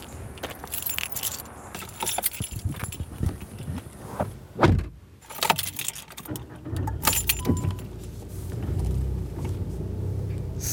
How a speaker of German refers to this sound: das, was wir hier jetzt machen, das macht eigentlich jeder. Immer wieder mit dem Auto den Parkplatz so umrunden und dann schauen,